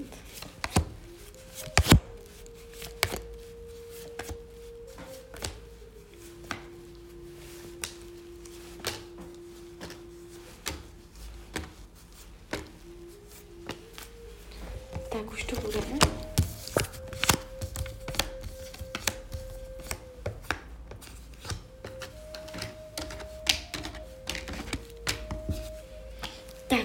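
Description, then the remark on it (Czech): Tarot cards being shuffled, with a steady stream of soft, irregular papery taps and flicks that grow busier midway, over a quiet, sustained melodic tone and no talking. “A já už se dívám na vaši fotku, míchám u toho karty a my se spolu podíváme, co nám Tarot poví o vašem období 2024.”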